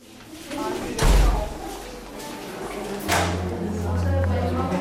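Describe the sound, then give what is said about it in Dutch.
A heavy door at the entrance of a secured facility slams shut behind a visitor with a deep thud, followed a couple of seconds later by a second solid impact and a metallic click as it locks, with a low hum lingering in the background. “Een dreun en een klik. Ik zal het vandaag nog vaak achter me horen.”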